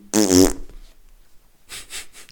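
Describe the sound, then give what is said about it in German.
A voice makes a loud, buzzy raspberry imitating a fart, about half a second long, followed after a short pause by softer, breathy noises. “schön einen weggeknattert, sie.”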